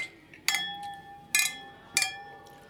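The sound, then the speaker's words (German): Beer glasses clink together three times in a toast, each strike sharp and bright with a ringing tone that lingers briefly, with no talking. “Prost. Prost.”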